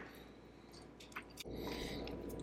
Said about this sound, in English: You're going to unwrap and give it a bite, then take a sip of water and then go for the other one.